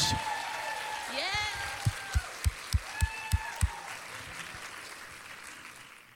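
A crowd applauds steadily with scattered cheers and whoops rising above it, while a run of loud, close, evenly spaced claps stands out midway before the applause continues.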